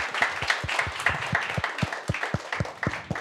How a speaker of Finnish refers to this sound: Annetaan vielä Karille aplodit.